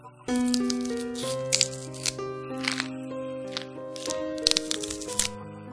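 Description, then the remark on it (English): Flesh tearing and bones breaking behind a king's throne, where a werewolf has walked: a run of irregular crunches, rips and sharp cracks, fairly loud, layered over a steady, sustained musical drone. “He last started hearing flesh tearing and bone breaking.”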